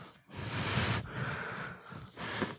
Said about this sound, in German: Ähm, aber Nase putzen, ich wusste nicht genau, wie das geht, weil ich mich nicht getraut habe, das so richtig fest zu machen. Ich habe dann hier, ich habe ja meine Taschentuchbox hier.